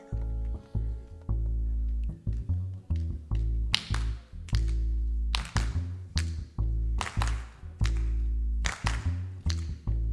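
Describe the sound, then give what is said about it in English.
Sharp, bright claps from an audience land in a steady beat over loud, bass-heavy music as they clap along to a song. No one speaks. “This is a stomp along, clap along song, so if you'll help us out.”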